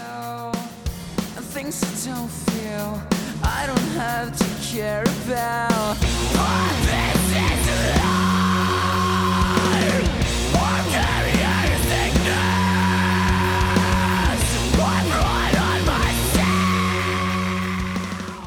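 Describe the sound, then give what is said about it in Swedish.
An emo song with raw screamed vocals over a loud full band, with heavy drums and dense guitars, after a sparser, choppy opening of about six seconds. “Och, eh, jag tycker än idag att eh, den delen som jag kommer spela upp här har något av de bästa skriken jag hört ever.”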